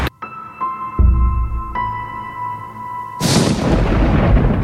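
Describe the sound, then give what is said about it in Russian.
Thunder from a fierce night thunderstorm with a lashing downpour and temperature down to 10 degrees: deep low booms roll in beneath sustained ringing tones, then a loud crash of thunder breaks into a continuous rumbling roar that lasts to the end. No one speaks. “Вторая ночь поисков отметилась жуткой грозой.”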